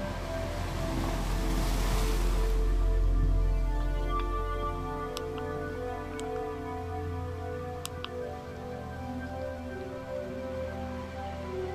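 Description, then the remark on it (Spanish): An ocean wave swells and washes in during the first few seconds, then recedes into a steady low rumbling drone with a few faint ticks. No one speaks. “¿Cómo te sientes al contemplar este océano?”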